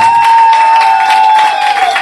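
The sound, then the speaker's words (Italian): An audience claps and applauds loudly for Salotto di Mao on Radio Flash, a dense, steady wash of many hands for two seconds, with a thin sustained whistling tone running underneath the whole time. “applauso salotto di Mao, ne parlavamo prima, è da quando sono alto così che me lo ascolto Radio Flash.”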